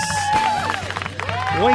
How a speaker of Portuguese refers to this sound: Ninguém mais, ninguém menos do que o meu amigo! Gustavo Guanabara, hoje no Radiofobia, senhoras e senhores! ele chegou! Salva de palmas!